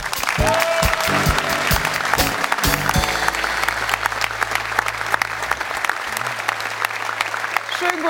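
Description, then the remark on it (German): Sustained audience applause for a guest being introduced on a show, a dense wash of many hands clapping steadily and loudly for about eight seconds, with a low hum and some brief tonal sounds underneath early on. “die heute so ein bisschen unsere Fanbeauftragte ist und hier ihren Applaus abholt.”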